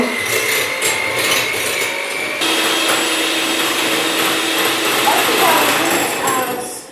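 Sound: electric kitchen mixer running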